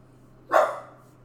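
dog barking

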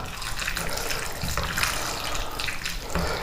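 food sizzling

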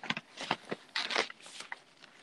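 turning book pages

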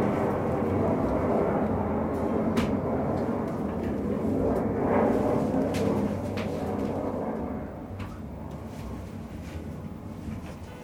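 airplane flying overhead

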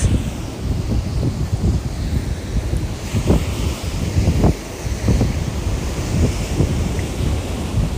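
wind and ocean waves

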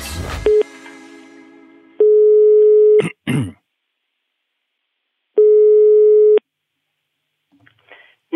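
telephone ringing tone

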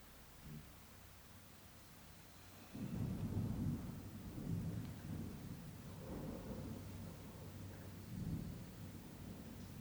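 thunder

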